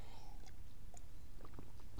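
Someone takes a sip of water in hot weather: soft wet mouth clicks and a few faint swallowing sounds over a low, steady background hum, with no talking.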